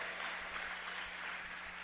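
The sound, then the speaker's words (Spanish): A church audience claps for God together in a dense, steady burst of applause that holds at an even, moderate loudness throughout, with no voices standing out above it. “No, hoy los, los, la gente de hoy dice, bueno, denle esas palmas al Señor, no es la gloria para mí, la gloria es para Dios.”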